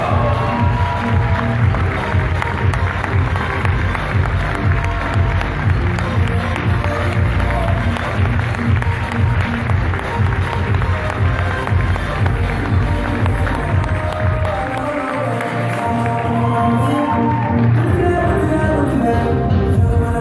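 Loud, sustained applause from a large audience welcoming a ruby executive leader from Guadalajara, Jalisco, a dense wash of clapping with some cheering that continues steadily for the whole stretch and dips briefly before swelling again.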